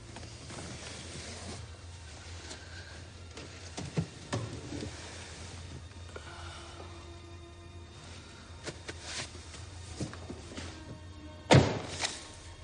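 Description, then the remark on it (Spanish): A car door in a garage shuts with one solid, heavy thunk near the end, after some softer knocks and rustling over a steady low hum and faint hiss. No one speaks. “Cierra la puerta y saca con una sonrisa un par de fajos de billetes de la mochila antes de volverlos a guardar.”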